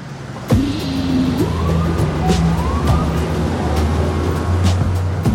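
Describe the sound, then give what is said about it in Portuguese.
Busy street traffic roars steadily at Columbus Circle in New York City in 2008, beside the 55-storey Time Warner Center, while a siren wails through it, rising and falling over the dense, loud hum of engines and passing vehicles. “Sarandas e Hastings estão no centro do barulhento Columbus Circle de Nova York”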